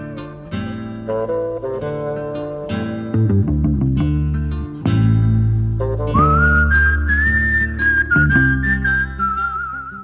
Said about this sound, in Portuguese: Esse assobio, cara. E esse aqui é o um assobio Tarantino, tá ligado? É Velho Oeste e é Tarantino.